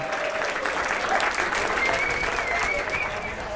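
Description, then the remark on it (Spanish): An audience applauds the guests steadily, a dense wash of many hands clapping at an even, fairly loud level throughout without pausing, with faint crowd murmur mixed in. “Bueno, pues eh, para vosotros este aplauso del público.”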